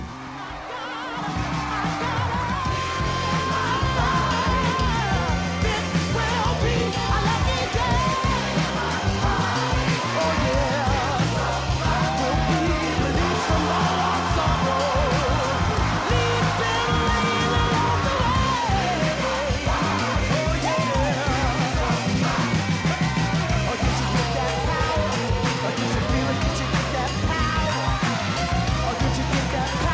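A soul song from a film soundtrack plays loud and steady throughout, with a strong driving beat, dense band backing and a powerful, shouting lead vocal riding over the top.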